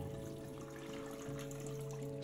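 A toilet is flushed by someone in another stall of a restroom, a steady muffled rush of water over a low droning hum, swelling briefly louder right at the end. No one speaks.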